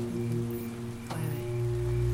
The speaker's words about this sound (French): Je me sens un peu submergée par toute cette pluie. Je sais pas pourquoi.